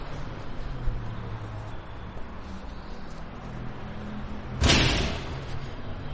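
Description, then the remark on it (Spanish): A door shuts with a single solid bang partway through, standing out briefly over a steady low background hum of outdoor noise. No one speaks. “Una puerta.”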